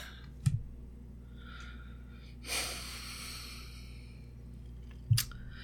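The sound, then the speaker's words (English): Two short, dull thuds of a book being thrown across the room, one at the start and one near the end, with a soft breathy rush of noise between them. No one speaks. “If you heard that thought, it was me throwing my book across the room.”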